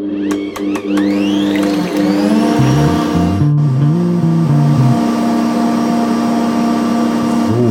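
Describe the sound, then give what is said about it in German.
A stand mixer fitted with a whisk attachment whirs loudly and steadily as it beats eggs with a pinch of salt until foamy, its motor hum wavering and shifting pitch, with a few quick clicks and rattles near the start and no voices. “damit ihr mich ein bisschen besser hört, während hier die Küchenmaschine im Hintergrund läuft, habe ich jetzt mal auf das Handmikrofon umgeschwenkt.”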